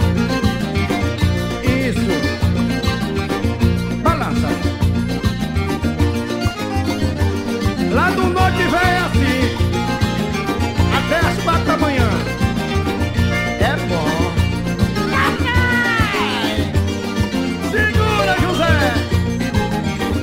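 A forró song with a sung vocal line over steady viola accompaniment, playing continuously and fairly loud for the whole stretch, with no speaking over it.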